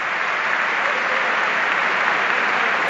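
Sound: stadium crowd applause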